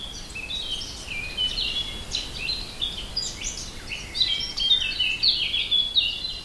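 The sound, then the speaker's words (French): Many birds chirp and trill continuously in a dense, overlapping chorus in the park of the Palace of Versailles, France, high-pitched and lively, heard outdoors with a soft ambient background and no voices. “Les oiseaux du parc du château de Versailles.”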